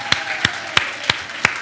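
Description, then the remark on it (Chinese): Five sharp, evenly spaced claps at a steady beat, a Stars Church audience clapping together in unison for Jesus during worship, over a faint continuous background hum with no voices. “欢呼声加尖叫声，我们给耶稣一个最大的掌声好吗？”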